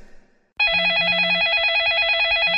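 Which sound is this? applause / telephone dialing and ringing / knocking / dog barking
telephone dialing and ringing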